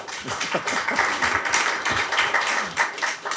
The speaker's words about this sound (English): Applause.